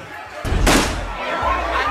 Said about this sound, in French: un coup de feu éclate. L'homme d'un mètre 75 qui, il y a quelques secondes encore, fulminait sur son estrade, vient, semble-t-il, d'être victime d'un attentat.